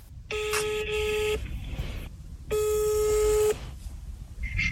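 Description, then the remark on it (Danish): Two steady electronic telephone tones, each lasting about a second and separated by a short pause, sound loud and clear over a quiet, faintly noisy background, as a phone call is placed to a military history museum in Odense, Denmark. “Vi kunne også lige prøve at ringe til, til museet egentlig.”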